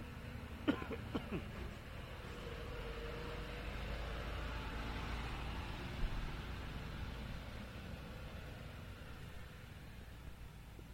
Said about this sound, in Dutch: En uh, ik wil de vrachtwagen. We wachten even op de vrachtwagen.